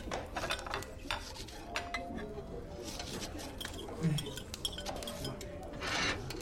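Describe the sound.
A player's dice being rolled during a game: a scattered series of sharp, bright clicks and clatters, irregular in rhythm, with a low murmur of voices underneath.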